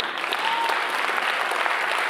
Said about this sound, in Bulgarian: О, ако ръкопляскаш, ръкопляскай, като че вярата ти се издига.